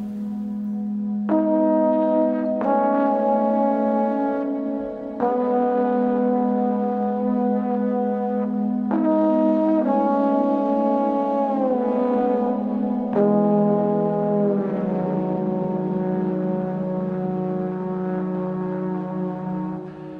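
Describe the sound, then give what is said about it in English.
A lone trombone on an unaccompanied solo recording released this year plays slow, long-held low notes that shift pitch every few seconds, sustained and steady in loudness, with no accompaniment or voices. “It's an unaccompanied solo recording that really sort of dwells in dream space.”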